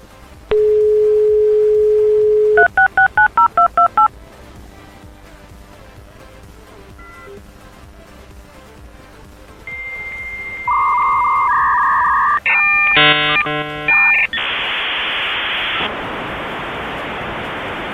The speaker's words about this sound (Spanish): Eh, les voy a poner bueno, el, sonido desde este, la conexión de, de internet.